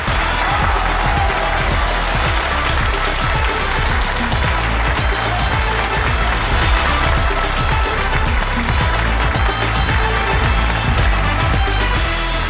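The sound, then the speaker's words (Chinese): Loud, sustained applause from a TV show audience welcoming mentor Liang Kaien and his six team members on the Chinese show Jingcai Zhongguo Shuo, mixed with a steady pounding low beat that thumps roughly twice per second. No one speaks. “接下来，就让我们用最热烈的掌声，有请出梁凯恩导师和他的六名战队成员，掌声有请。”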